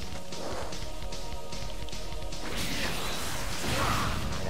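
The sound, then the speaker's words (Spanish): Dense, continuous fighting video game effects as a battle loads in versus mode: a sustained buzzing energy charge layered with rushing whooshes and sharp impact hits, loud, with no speech. “está cargando Piccolo contra Freezer”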